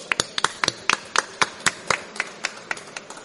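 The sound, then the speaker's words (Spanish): Applause from a small audience for a guest on the programme Río de la Vida: a run of sharp, distinct hand claps at a fairly steady, brisk pace, moderately loud, with no voices heard. “Un aplauso, por favor. Un aplauso para venir, por favor.”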